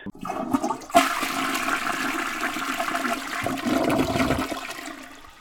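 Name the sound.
toilet being flushed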